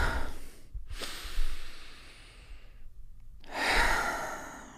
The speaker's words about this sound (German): Wenn du diesen bequemen Sitz eingenommen hast, dann atmen wir einmal gemeinsam dreimal tief aus und ein.